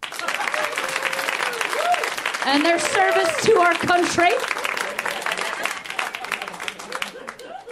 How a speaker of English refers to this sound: He's probably at home, but look at these spry young folk here at a show. One more round of applause for these men